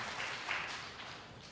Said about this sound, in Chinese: 都没有，OK，好，那我们拍手欢迎那个不敢起来的新朋友哈。好，感谢神。